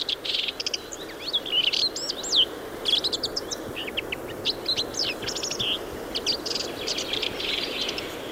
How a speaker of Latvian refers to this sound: Tā tad lielās čakstas dziesma, Amerikas lielās čakstas dziesma, var pievilināt mazos putniņus.